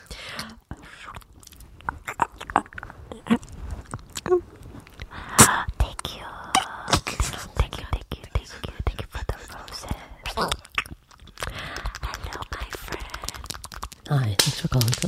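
Soft, breathy ASMR whispering, with crisp clicks and mouth sounds scattered throughout, building slightly louder toward the end.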